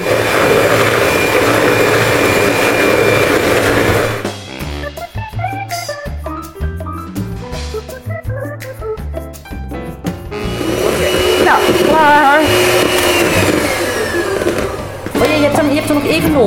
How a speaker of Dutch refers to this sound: Mix de thee met de suiker en de eieren tot ze schuimig zijn. Ja. En tussen haakjes circa 10 minuten kloppen.